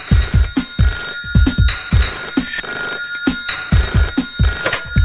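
A telephone bell rings continuously with a bright, steady trill, set against a thumping rhythmic beat that pulses several times a second, loud throughout.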